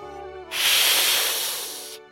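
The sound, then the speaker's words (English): A cat hisses once, a loud, breathy hiss lasting about a second and a half, coming in sharply after a faint tonal hum and then trailing off. “It wasn't just any old hiss. Oh no. Monty knew this hiss only too well.”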